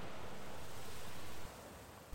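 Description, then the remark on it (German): A steady, broad rush of sea waves washes continuously on a sunny day, fairly even and moderately loud, easing slightly partway through, with no voices present. “Auch wenn die Sonne scheint, die Möwen laut sind oder was auch immer das für Vögel sein sollen und das Meer rauscht.”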